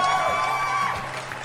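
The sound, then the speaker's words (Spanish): A crowd applauds and cheers loudly, with whoops and shouts layered over a steady wash of clapping that carries through the whole brief moment. “Unos aplausos para ustedes.”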